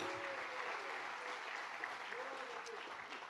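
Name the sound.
audience applauding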